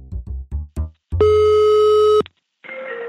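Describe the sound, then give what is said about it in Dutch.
A telephone ringback tone plays: a few short low blips, then one long steady electronic ring, a brief pause, and the next ring starting, clear with no voices. “Eh, ik ga jullie doen verdwijnen in de collecties en de telefoongesprekken van heel veel toffe namen.”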